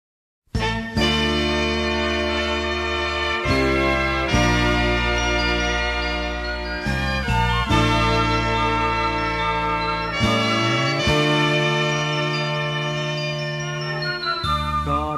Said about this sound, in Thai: คุณผู้ฟังคะในช่วงนี้พักฟังเพลงเพราะๆจากทางรายการ และสิ่งที่น่าสนใจกันสักครู่นะคะ